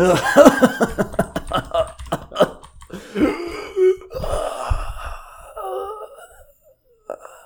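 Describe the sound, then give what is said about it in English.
A man clears his throat, a series of rough, guttural bursts and strained vocal noises over several seconds, ending in quieter breathy groans. “he's clearing his throat. He's not using Google or, or anything.”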